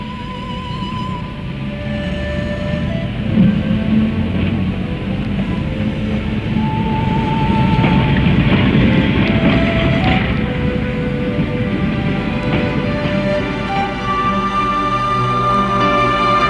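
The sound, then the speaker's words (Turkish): A train pulls away and rolls steadily along the tracks, a loud, continuous rumble and clatter with faint metallic squeals rising and fading over it, without any voices. “Herkes trene bindi.”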